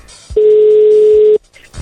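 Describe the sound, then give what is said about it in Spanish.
A single steady electronic ringback tone from a WhatsApp call, loud and clear, holding one pitch for about a second before cutting off, with faint background noise around it. “Dice que solo recibe llamadas por WhatsApp. Vamos a intentarle por aquí.”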